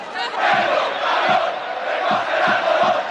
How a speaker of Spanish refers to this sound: 1993, Estadio Santiago Bernabéu, partido entre el Real Madrid y el Rayo Vallecano, que tiene un portero nigeriano llamado Wilfred. La grada le grita a Wilfred que se vaya a recoger algodón.